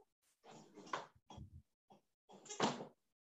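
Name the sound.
knocking on a door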